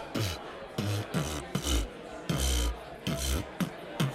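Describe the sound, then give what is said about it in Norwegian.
Beatboxing: a voice mimics a drum beat with a steady, loud rhythm of deep bass kicks alternating with raspy, hissing snare and hi-hat sounds, repeating for about four seconds. “Hei, du, jeg har begynt med beatboxing i det siste. Har du lyst til å høre?”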